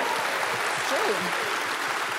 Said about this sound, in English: And everybody in this building is clapping, come on, clap and let them know that's true.